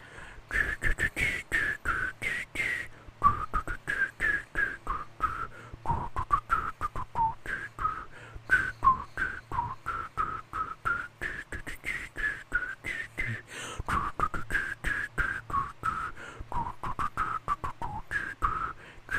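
Someone whistles a song melody as the fourth question of a guess-the-song quiz, continuously for about twenty seconds, the bright tune rising and falling in smooth phrases over a steady, rhythmic clicking beat, with no talking.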